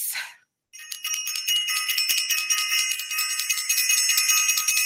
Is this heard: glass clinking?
no